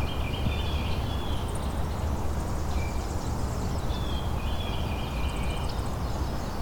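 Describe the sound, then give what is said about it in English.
Magnolia warbler song: short, sweet, high-pitched phrases repeated several times, fairly faint over a steady rushing background hiss, with other thin high bird notes mixed in. “Oh, here's a magnolia warbler too.”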